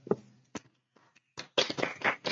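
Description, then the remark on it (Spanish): A few scattered, sharp hand claps give way to a dense, loud burst of applause that fills the final second, with no talking. “¡Aplausos!”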